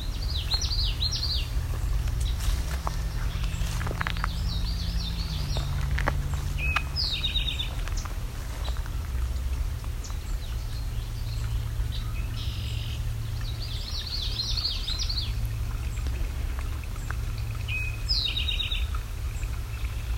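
Red-winged blackbird, eastern towhee and common yellowthroat calls ring out in repeated short bursts, several birds trading phrases over a steady low background rumble.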